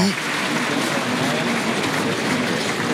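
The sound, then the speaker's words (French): A large bullring crowd applauds the matador Emilio in a steady, dense wash of clapping that holds at an even, fairly loud level throughout, with faint voices mingled in the noise. “il va être salué, applaudi, Emilio”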